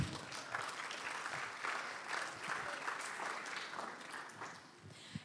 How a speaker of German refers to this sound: By the way, wenn wir schon mal dabei sind, ich finde, das hier ist die beste Gemeinde ever und ich finde, die hat auch nochmal einen großen Applaus verdient.